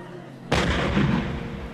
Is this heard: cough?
no